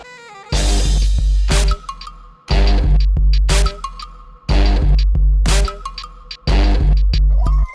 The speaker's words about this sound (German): Jetzt kommen Glocken.